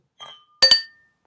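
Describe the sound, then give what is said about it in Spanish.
Beer glasses clink together in a toast, a soft first touch followed by two bright, ringing chimes in quick succession that fade out, clear with no talking. “Pues este, salud. Salud.”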